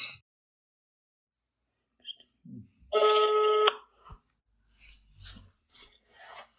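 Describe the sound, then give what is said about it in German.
A telephone call being placed to tell someone of a big prize win: a few brief dialing blips, then a single loud, steady electronic ring lasting under a second, followed by soft handling rustles as the line picks up. “Alter, wie schnell gehst du dran?”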